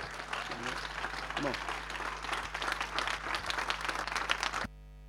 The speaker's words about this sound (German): Hey, können wir Gott nochmal einen Applaus geben? Können wir Gott nochmal einen richtig großen Applaus geben?